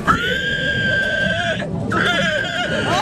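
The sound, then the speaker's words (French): A person imitates a pig squeal at an amateur pig-squeal contest at a village festival in Angle-sur-l'Anglin: two long, shrill, strained cries separated by a brief breath, loud, with a wavering pitch that cracks at the end. “grand gagnant du concours du meilleur cri de cochon”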